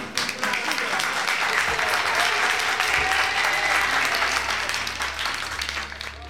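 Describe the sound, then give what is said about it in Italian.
Sustained applause from a sizable crowd, a dense wash of many hands clapping at once, loud and steady throughout before easing slightly at the end. “tantissimi auguri a tutte le, le amiche che ci sono in questo fantastico podcast, un applauso.”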